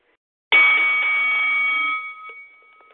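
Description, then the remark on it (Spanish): A single loud bell rings out sharply to start a round, its bright clanging tone sustained for over a second before fading into a lingering metallic hum. No one speaks. “al sonido de la campana, pa'lante.”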